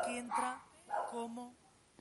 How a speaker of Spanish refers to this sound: Eh, tengo un problema con unos caninos, unos perritos.